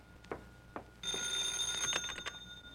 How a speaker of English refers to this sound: Hello, Mr. Benny's residence. Hey, Livy. Hey, how come you're answering the phone? New clause in your contract?